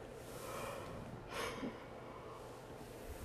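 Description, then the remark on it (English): A single breathy yawn: a soft rushing intake that swells briefly midway, then fades against a low, steady background hum, with no talking. “I don't know why I'm yawning like this.”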